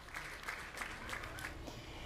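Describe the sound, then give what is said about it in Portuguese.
A group of people clapping steadily for a couple of seconds, a dense, continuous patter of applause with faint voices mixed in underneath, applauding a father, mother and baby girl as they leave hospital after mother and baby were discharged following Covid-19. “Pai, mãe e a bebê saíram aplaudidos do hospital.”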